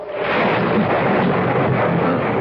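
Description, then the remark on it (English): A steady, rolling rumble of thunder fills the whole stretch, a dense roar that holds at an even loudness without breaks, with no voices present. “what's that? sounds like thunder.”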